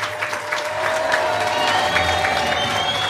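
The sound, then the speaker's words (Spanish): A crowd of people outdoors, outside the venue, cheers and applauds steadily in greeting, a dense wash of clapping and shouting voices with a few whistles rising above, sustained at a fairly even loudness throughout. “Bueno, y afuera hay un montón de personas que están mirando para este Ahí lado. están los de afuera, escuchen.”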